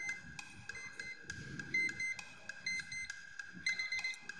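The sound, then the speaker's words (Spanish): An alarm clock beeps in a rapid, repeating electronic pattern at half past seven in the morning, steady, sounding on its own without anyone speaking. “Son las siete y media de la mañana y suena mi alarma.”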